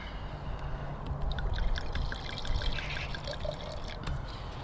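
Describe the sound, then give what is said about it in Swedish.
Wine, a Stellenbosch wine from South Africa, pours steadily into glasses for several seconds with a gurgling trickle and faint clinking, fairly quiet, with no one speaking. “Jag häller, du läser för du sitter med datorn.”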